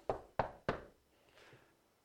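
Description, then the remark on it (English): Three firm, evenly spaced, sharp knocks on a wooden door, followed by a faint rustle and then quiet. “And sometimes you, you'll knock on a door.”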